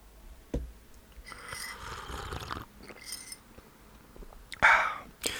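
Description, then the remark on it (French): Slurping sips of hot Indian spiced tea with milk and one sugar, bought beside the Gare du Nord: a long airy slurp, then a shorter, sharper one near the end, with soft mouth sounds and quiet between. “Et je vais mettre mon téléphone en silencieux pendant que je bois une bonne gorgée de thé.”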